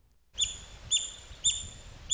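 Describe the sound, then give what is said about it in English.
An imitated little call of an extinct giant otter: four short, high-pitched chirps repeating evenly about every half second, each with a bright whistly tone, over a faint low rumble. “It let, out, it let out this sound. It let out a little sound like this”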